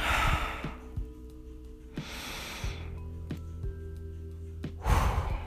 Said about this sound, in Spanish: en cualquier situación de miedo, con tu respiración. Respiras.